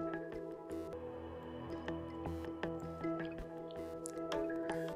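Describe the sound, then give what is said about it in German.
A small forest stream flowing calmly over stones and branches, with steady trickling and frequent small drips and splashes, continuous, with no voices present. “Du kommst an einen kleinen Bach. Er fließt ruhig und gemächlich durch den Wald, sucht sich seinen Weg über Steine und Äste.”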